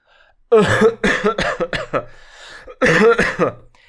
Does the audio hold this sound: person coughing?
yes